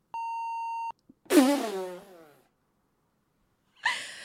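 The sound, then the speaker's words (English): A single steady censor beep, a clean electronic tone lasting just under a second, bleeps out a person's spoken last name and is followed by a drawn-out vocal moan or laugh and then a short breathy burst. “I won't re- reveal the last. I'll beep it out.”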